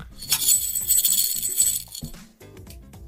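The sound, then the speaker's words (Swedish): Dry macaroni, 95 pieces, rattles and clinks against a jar in a continuous shaking burst, fairly loud, with sharp bright ticks scattered throughout and a brief pause near the end. “och det ligger 95 makaroner i makaronerburken.”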